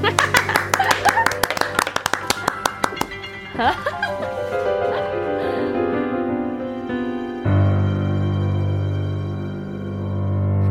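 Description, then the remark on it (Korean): A quick run of sharp, rhythmic hand claps for about three seconds, loud at first and then thinning out, before a steady music track with sustained tones takes over. “박수 치세요.”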